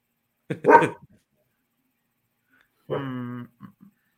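dog barking

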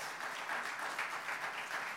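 applause

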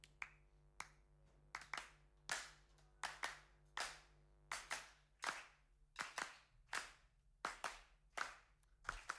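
hands clapping a rhythm

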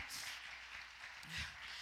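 audience hand clapping

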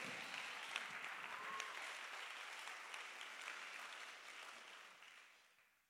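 audience clapping hands

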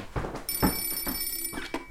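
telephone ringing

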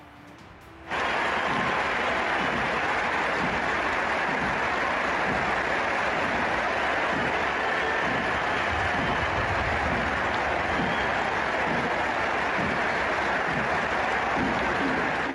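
stadium crowd applauding

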